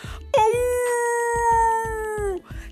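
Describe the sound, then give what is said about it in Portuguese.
A person imitates a wolf in a children's story screaming to frighten the grandmother: one long, loud, steady wail, held for about two seconds before sliding down in pitch, over a faint rhythmic low thumping. “E depois, ele deu um susto na vovó, e começou a gritar. Olha como ele gritava”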